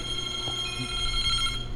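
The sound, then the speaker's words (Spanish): A telephone rings with an incoming call, a steady electronic ringing tone that continues throughout at moderate volume, heard alone without any talking. “Eh, no sé qué está pasando con el teléfono. Aquí trató de entrar una llamada, pero yo la tuve que colgar porque por aquí no la puedo recibir.”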